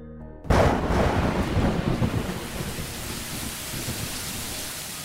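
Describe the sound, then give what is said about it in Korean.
Heavy rain pours down steadily after a brief quiet start, a dense loud wash of noise with a low rumble beneath it, like rolling thunder. “비가 아주 많이 오던 날이었죠.”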